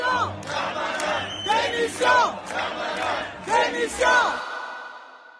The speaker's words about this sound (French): Une clameur explose dans l'hémicycle. Personne ne, s'attendait vraiment à, ce résultat-là. Vraiment, on sent une forme d'électricité dans l'hémicycle puis résonne euh, dans les bancs euh, des députés des Darmanin démission.